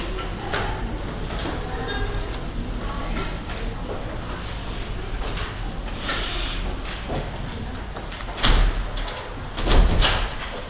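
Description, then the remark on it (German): A door at the back of a hall slides and bumps shut, with two heavier thuds near the end over a steady hum of room noise and shuffling. “Meine Damen und Herren, äh, liebe Kolleginnen, liebe Kolleginnen, bitte die Türe äh, hinten schließen.”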